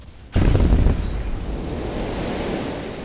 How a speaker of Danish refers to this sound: Et inferno af høje og voldsomme eksplosioner lyder over Helsingborg, og det beskriver han til Elias von der Weide sådan her.